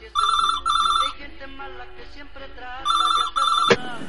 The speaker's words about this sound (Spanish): Hasta que suena el teléfono, el lunes por la noche.